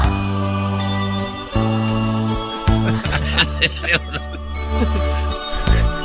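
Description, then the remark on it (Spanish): A bright, catchy contest song cue plays on air for several seconds, with steady sustained low tones under chiming, bell-like melodic notes that shift in short phrases, loud with no talking. “Cada que escuche esta canción, recuerde usted llame al teléfono que aparece en pantalla.”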